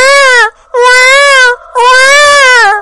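A voice imitates a newborn baby crying in a hospital delivery room with three loud, drawn-out wails, each high-pitched and wavering, separated by short pauses.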